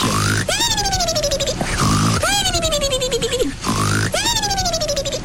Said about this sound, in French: Ouais, alors si je dors avec des bruits comme ça, euh, je pense que je dormirai Ah, pas c'est des beaux ronflements. C'est des beaux ronflements.